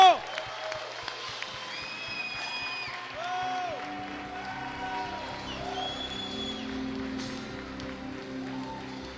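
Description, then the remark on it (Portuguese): A church audience bursts into sustained applause to the Lord as a shout of victory after praying together, with shouts, whoops and rising cheers layered over dense clapping that holds steady and loud for about nine seconds. “o Senhor, aplauda!”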